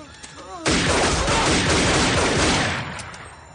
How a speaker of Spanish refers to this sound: Tres hombres se bajan del coche, un deportivo rojo, y sacan sus pistolas dirigiéndose a él. Al llegar, le disparan.